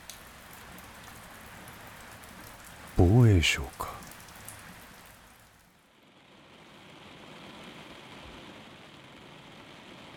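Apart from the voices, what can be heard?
heavy rain falling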